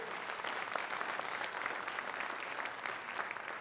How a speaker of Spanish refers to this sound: Si le vas a aplaudir al Señor, vamos, más fuerte, más fuerte.